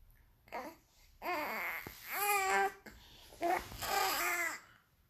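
A baby girl babbles in several short, rising and falling bursts of vocal sounds, fairly clear, with brief pauses between them and no adult speech.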